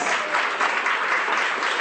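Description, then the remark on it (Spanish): A steady burst of crowd applause with cheering mixed in for Dormilón, dense clapping holding an even, loud level throughout the short clip with no speech over it. “Hasta vitoreos, dormilón, qué barbaridad.”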